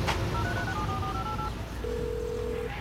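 A phone places a call by voice command: a quick run of electronic dialing beeps plays over steady low rumbling road noise, followed by one longer, sustained ringing tone as the call connects.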